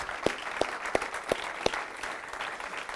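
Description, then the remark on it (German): An audience applauds for the people watching online from Austria, Germany and Switzerland: a dense, steady patter of clapping hands, with several sharper individual claps standing out at uneven intervals. No voices are heard. “Geben wir den Menschen bitte einen Applaus.”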